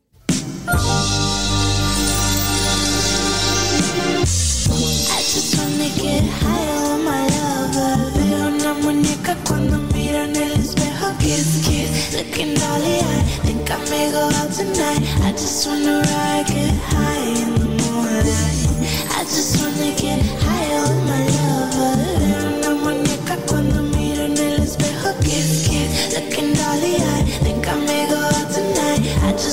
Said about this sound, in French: avant ça, une petite pause musicale. On va s'écouter une musique